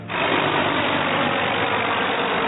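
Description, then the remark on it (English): Apache and Black Hawk helicopters roar overhead during a mock invasion display at the Special Forces Operations Convention, a loud, steady engine drone, a dense rumbling wash of sound that holds constant throughout with no voices. “The display featured Apache helicopters speeding overhead, while bigger Black Hawk choppers carried highly trained operatives as part of a make believe invasion.”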